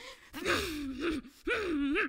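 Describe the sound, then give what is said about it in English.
A voice imitates a battle horse's breathing: two heavy, breathy, voiced blasts in quick succession, fairly loud, with the pitch rising and falling through each one. “So portraying an image of a battle horse, you know? Think of it. I'm not that great at imitating, but you can see them.”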